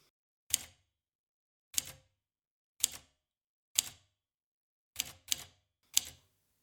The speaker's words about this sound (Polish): Wciśnięcie klawisza powoduje uniesienie dźwigni czcionkowej i umieszczenie litery na papierze leżącym na wałku. Pisanie na maszynie wymaga nieco więcej siły niż pisanie na klawiaturze komputera.